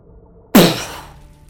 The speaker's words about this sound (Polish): Widzisz, że gaz poszedł ogniem, walnął. Kilka kamieni się osunęło.